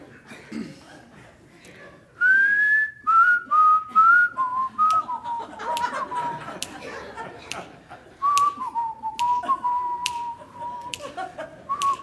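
Someone whistles a gentle, bouncy melody, the clear pure notes stepping down and back up in a relaxed rhythm, with faint clicks and soft background murmuring underneath.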